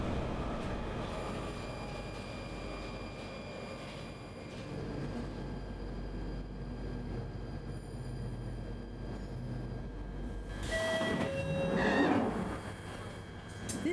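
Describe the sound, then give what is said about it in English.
A Northern Line underground train bound for Alexandra Palace rumbles steadily along the tracks with a constant low roar, then a sharp metallic wheel squeal rises near the end as it rounds a bend. No one speaks. “Riding the Northern Line ghost train”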